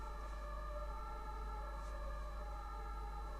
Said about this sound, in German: Da hört ihr die Feuerwehr, nicht Feuerwehr, sondern die Feuerwehr. Ta, tü, ta, ta